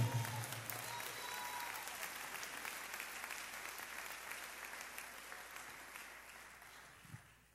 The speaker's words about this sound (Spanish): Si lo cree, déle el mejor aplauso al Señor en esta hora.